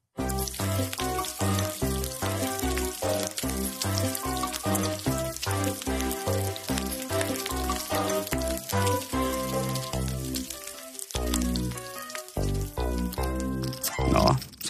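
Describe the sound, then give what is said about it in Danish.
Bacon sizzles and crackles steadily in a frying pan, a dense hiss full of sharp pops that keeps going throughout with only a brief lull near the end. “sad du måske lige der og fik lyst til at stejle lidt bacon i aften, kære lytter.”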